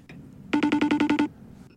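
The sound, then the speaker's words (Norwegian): A FaceTime incoming call ringtone plays a quick burst of eight or so evenly spaced, bright pulsing chimes over less than a second, loud, with quiet room tone before and after. “Det er lyden av FaceTime.”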